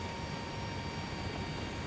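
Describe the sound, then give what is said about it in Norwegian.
A steady, loud drone of Hercules military transport aircraft engines, used by the Norwegian Armed Forces to fly people and supplies to Jan Mayen, with a constant roar and faint whining tones holding unchanged throughout, like sitting inside the cabin. No voices. “Så, når Hercules-flyene ikke er opptatt med andre oppdrag for Forsvaret rundt om i verden, da flyr de folk og forsyninger til Jan Mayen.”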